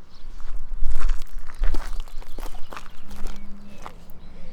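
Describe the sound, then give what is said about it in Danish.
Footsteps walking at a steady, unhurried pace down along the Gudenå river on a sunny day, a series of soft crunching steps over rough ground with a low rumble underneath and no one speaking. “Skal vi starte med at gå lidt ned langs åen?”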